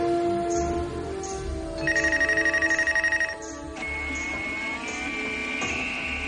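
A telephone switchboard rings with a rapid, buzzy trill in repeated bursts, layered over steady electronic tones, with a brief rising whine as a computer starts up. No one speaks.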